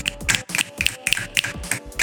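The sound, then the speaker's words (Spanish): An audience snapping their fingers instead of applauding at a clandestine venue: a steady run of sharp finger snaps, about seven or eight crisp clicks in a quick, even rhythm, with nobody talking. “Chasqueaban los dedos.”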